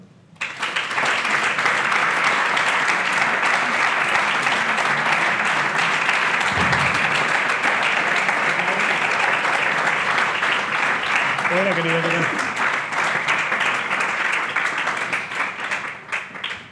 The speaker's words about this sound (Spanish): Yo pido un aplauso, por favor, para Joel Prieto.